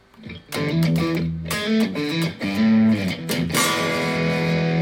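Crunchy overdriven electric guitar through a Vox-style amp simulation with the distortion turned up, strummed chords ringing out with bright, gritty harmonics, played alone at a steady, fairly loud level.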